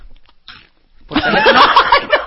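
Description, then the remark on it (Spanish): Wet mouth sounds of chewing and swallowing food: a brief soft smack, a pause, then a dense, continuous stretch of loud smacking and gulping right up to the end. “tragando, o tragando.”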